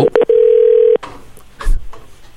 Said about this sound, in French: Alors, Julien est en train de composer.